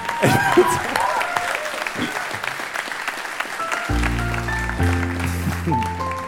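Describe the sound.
An audience claps steadily throughout, a dense crackle of applause with voices mixed in, and a sustained tonal, music-like sound joins in the second half.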